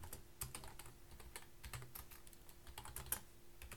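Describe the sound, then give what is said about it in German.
Someone types a message on a computer keyboard during a call, a quick, uneven patter of clicky keystrokes with a few brief pauses, fairly quiet, with no talking. “er schreibt mir, dass Audacity noch aufhört. Aufnimmt.”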